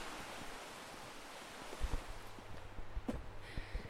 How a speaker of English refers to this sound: it's so peaceful on this little trail. There's the sound of the river, there's birds tweeting, lots of trees, dappled sunlight. It's beautiful, isn't it?